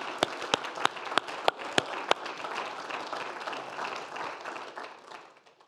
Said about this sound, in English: And that's why King David said, Let all the nations clap their hands. How about if we do that together tonight as Israel and all nations? Let's clap our hands in praise to him.